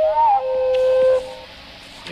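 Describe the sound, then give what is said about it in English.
The beginning part of a wood thrush song slowed to one quarter normal speed: drawn-out, pure whistled tones gliding and holding at steady pitches, with a fainter harmonic layer above, then fading into quiet near the end. “Listening to the Wood Thrush -- with one of the world's greatest bird song experts.”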